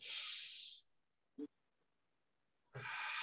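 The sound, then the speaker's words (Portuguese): A deep, airy breath is drawn in as a demonstrated breathing exercise, then a short quiet pause with a faint click, then a long, strong breath pushed back out. “é que é o seguinte: você faz uma respiração assim.”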